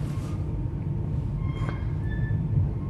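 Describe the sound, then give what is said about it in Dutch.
A steady, loud low rumble of a moving train heading toward Rotterdam Centraal station fills the space, with faint metallic whines and a brief clank of wheels on track, heard from inside the carriage. “En zoals je hoort zit ik in de trein.”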